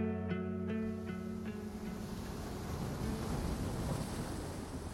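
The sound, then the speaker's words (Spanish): Loud ocean waves on the warm Mexican Pacific coast, by a beach of soft, clean sand, crash and roar in a steady, continuous wash of surf, with a faint tonal hum and a few clicks early on. No voices are heard. “El ruido de las olas era ensordecedor, unas olas a las cuales no podíamos ni acercarnos en esas aguas cálidas del Pacífico mexicano, bordeadas de una arena suave y limpia que apenas pisaríamos.”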